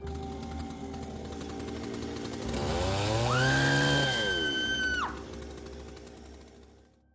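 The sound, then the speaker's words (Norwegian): A chainsaw idles with a low rattle, then revs up to a loud, steady, high whine for about two seconds before dropping back to idle. No one speaks. “Det verste er nesten at motorsag faktisk var en forbedring, men det betyr ikke at metoden var spesielt bra”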